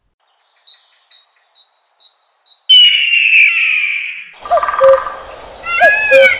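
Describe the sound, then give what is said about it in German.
Birdsong with a quick series of high, evenly spaced chirps, then a sustained buzzy trill and a burst of overlapping whistled calls, loud and close, with no talking. “Vogelgezwitscher.”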